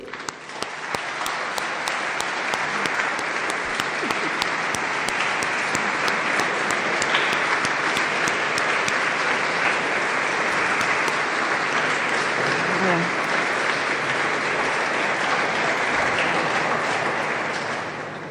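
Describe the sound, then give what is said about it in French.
Sustained audience applause for Melton, outgoing president of the Conseil presbytéral (parish council): a dense steady patter of many hands clapping at even loudness for about eighteen seconds before tapering slightly at the end. “Et d'ailleurs, je vous propose, avant de vous dire qui est la nouvelle présidente, d'applaudir Melton parce que.”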